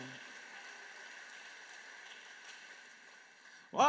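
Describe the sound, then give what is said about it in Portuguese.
A crowd claps steadily for several seconds in applause for the Lord, a dense, fairly soft patter, before a man's voice cuts in at the very end. “Você pode aplaudir o Senhor? Ele é digno.”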